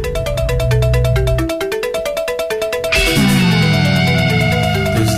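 A new wave rock song intro, played as Stranger Things soundtrack music, starts with a loud pulsing synth pattern and steady beat, then the full band crashes in about three seconds later with bright, dense instrumentation; no voices.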